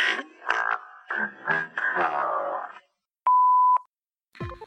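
A voice speaks a short greeting, then after a brief pause a single steady answering-machine beep sounds, a clean mid-pitched tone lasting about half a second, loud and alone.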